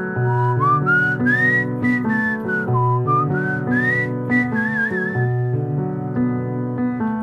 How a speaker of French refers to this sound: Ils rentrent se coucher en sifflotant dans les rues. Et toi, petites oreilles, tu sais siffler aussi Alors essaye de te joindre à eux.